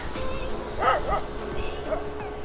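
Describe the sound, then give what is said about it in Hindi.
A dog gives a few short, high yipping barks in quick succession near the middle, then one more a moment later, over a steady background hum. “तू तो भाई नॉर्मल एक कुत्ता है सांप नहीं है”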